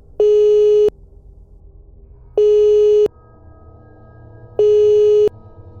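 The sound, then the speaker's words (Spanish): A telephone rings three times on an outgoing call to a number, each ring a steady, buzzy mid-pitched tone under a second long, evenly spaced about two seconds apart over a low background hum. “Sonaron tres timbres.”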